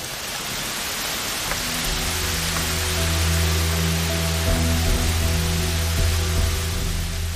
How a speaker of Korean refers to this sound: 비가 와.